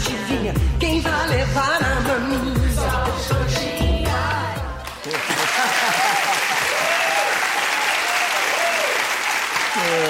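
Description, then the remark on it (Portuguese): A short burst of upbeat music with singing cuts off halfway, and a crowd breaks into steady, loud applause that carries on to the end, with a few voices faintly mixed in. “Será que não tem coxinha aplaudindo aqui na plateia?”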